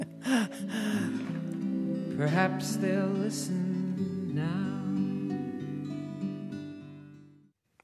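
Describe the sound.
The final line of a gentle folk song, a male voice singing over sustained acoustic guitar, with the music holding steady before fading out at the end.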